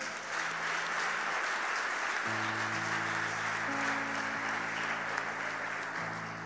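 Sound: audience applauding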